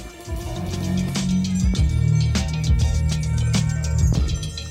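A hip hop track released in 1994 plays at steady volume, with a heavy sustained bassline, punchy drum hits landing at regular intervals and layered melodic samples above, no voices heard.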